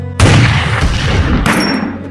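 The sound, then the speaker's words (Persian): A loud volley of gunfire erupts at once, a dense burst of overlapping shots that rings on with a long rumbling decay, a second crack adding to the echo; fired by a line of kneeling top pupils. “شاگرد اولها صف بندند شاگرد اولها زانو زنند شاگرد اولها شلیک می کنند”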